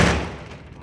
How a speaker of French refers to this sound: Là, en bas, on ferme une porte.